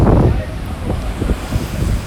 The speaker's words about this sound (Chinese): 唉，继续看海浪，看能不能看出个所以然好了。